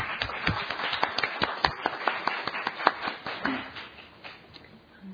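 audience applause

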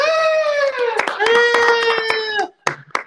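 hands clapping

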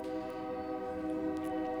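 passing train with horn

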